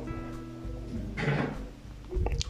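The door of a lonely, almost abandoned house creaks slowly open inward, a drawn-out groaning sound that swells in the middle before fading, with a low rumble underneath and a small knock near the end.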